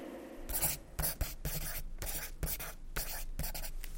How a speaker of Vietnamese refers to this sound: Tori lại chấm nước bọt vào bút chì và viết thêm một dòng to hơn lúc nãy